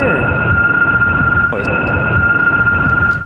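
Wind whistles and clanks through the balcony railings of expensive condos in Brooklyn, New York, in a steady, high, eerie drone with two sustained tones over a constant rushing roar, broken by a faint knock midway.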